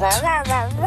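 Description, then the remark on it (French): In an Ultra Premium Direct dog food advert, a human voice imitates a dog's excited barking with three quick, loud 'bah' yelps in rapid succession. “ce que vous entendez, c'est le cri d'amour de votre chien lorsque vous lui servez des croquettes ultra premium direct fabriquées en France.”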